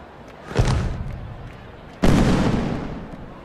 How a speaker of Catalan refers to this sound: Ignore si heu assistit a un castell de focs artificials, però després del tercer avís és difícil mantindre una conversa. Les cares s'acosten per a poder sentir el que l'altre ha de dir.